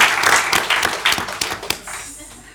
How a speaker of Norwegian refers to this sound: Veldig bra. En applaus. Veldig bra.